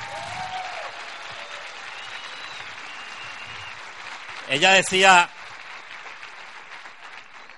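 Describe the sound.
A crowd claps steadily throughout, a dense wash of applause. Someone starts speaking over it, and a brief, louder vocal burst rises near the end.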